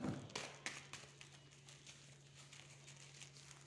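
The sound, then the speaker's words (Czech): Tarot cards being shuffled for a partner reading: soft papery rustles and light irregular taps, quiet and without speech, over a faint steady low hum. “Já už míchám karty, dívám se na vaše fotky.”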